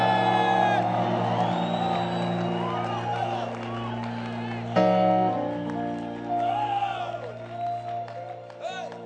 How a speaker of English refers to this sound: If you're happy about what I'm saying, I want you to clap your hands, lift up your voice, and give Jesus a shout.